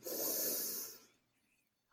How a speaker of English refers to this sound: It's a conscious breath. It's a dolphin breath. like that dolphin breath. oh, the dolphin breath.